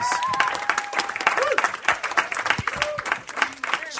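A crowd applauding steadily for several seconds, dense overlapping claps filling the room, with a few whoops and cheering voices rising above the clapping.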